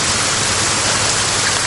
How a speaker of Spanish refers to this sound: La lluvia regresa cuando ellos llegan a un pasto.